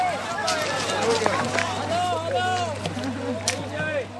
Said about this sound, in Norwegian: En gummibåt nærmer seg land. De som er om bord, kan endelig slippe jubelen løs.